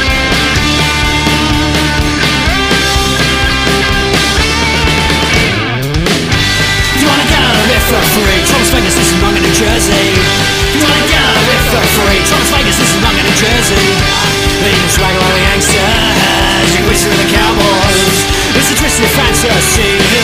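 A loud, full music bed plays throughout with no voices, layered with sustained tones and a steady beat, broken by a brief sweeping transition around six seconds before the groove resumes.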